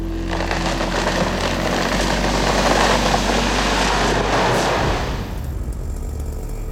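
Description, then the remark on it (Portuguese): A felled tree comes crashing down in a long, loud roar of splintering and rushing branches over a steady engine drone, then the crash cuts off abruptly and leaves a quieter hum. “Quando vai cair, ela parece que dá um grito.”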